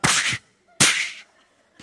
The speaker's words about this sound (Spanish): Y de momento recibo dos bofetadas.